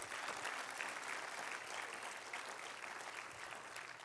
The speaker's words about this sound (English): Clap your hands unto the Lord and thank God for that.